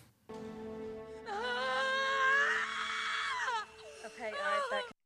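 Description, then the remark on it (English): A woman screams loudly, a long, high, wavering shriek that rises in pitch, breaks off, then returns as a shorter strained cry at the end over a steady low tone. “So we've got quite a collection of screams to go with uh, with this with our show so far.”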